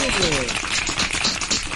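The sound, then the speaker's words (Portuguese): Dense, steady applause of many hands clapping fills the whole moment, loud, with a brief voice audible underneath at the very start. “Palmas para”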